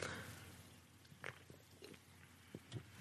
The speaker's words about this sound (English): All right, I'm going to take a sip. Usually, I take a sip of my drink when somebody else is talking,